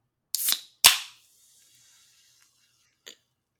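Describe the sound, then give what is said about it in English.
A Reign energy drink can cracks open: a short crackle, then a sharp snap followed by a brief fizzing hiss, and a faint click a couple of seconds later. No one speaks. “let me go ahead and open this Reign up before I get going.”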